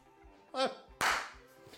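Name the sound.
applause sound effect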